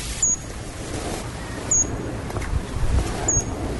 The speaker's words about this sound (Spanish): Es diminuto, esto es un colibrí chivito, esto es un colibrí que está en nuestros páramos en Cundinamarca y en Boyacá y tiene una particularidad muy interesante. Es muy pequeña, ella se posa sobre las flores de los frailejones